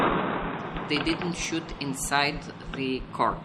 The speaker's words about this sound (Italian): I tiratori sono piazzati in punti strategici e tengono sotto mira l'ingresso e il cortile del Politecnico. Poi i primi spari.